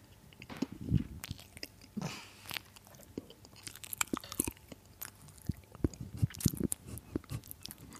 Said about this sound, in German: wir bauen das einfach als ASMR-Part ein, wenn du kurz in, ins Mikro oh, kauen ja, willst. Auch mal so von einem Mann wäre vielleicht auch mal schön, weil von uns kennen die das ja schon. Mhm. Aber flüssig. so richtig genüsslich.